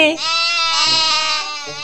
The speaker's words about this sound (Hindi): ओ तो ऐसे बोलती है बकरी मैं मैं